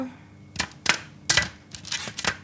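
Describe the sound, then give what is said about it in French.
Vegetable slices set down one after another in a single layer on a baking tray for roasting, making a series of soft taps and clicks at an uneven pace, with no talking. “Donc, on pose nos tranchinettes”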